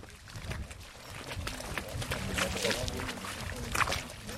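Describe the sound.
A mudflat-hiking group splashes through a tidal creek in the North Sea seabed on the way back to the mainland, with steady sloshing and repeated watery splashes as feet churn the water. Indistinct voices murmur underneath throughout.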